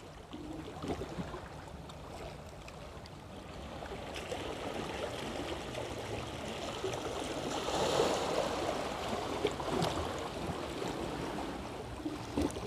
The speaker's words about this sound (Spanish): Estoy escribiendo en el jardín, sentada frente al mar y bajo la palmera. De fondo y a la vez muy cercano me acompaña el sonido de las olas y el olor a libertad.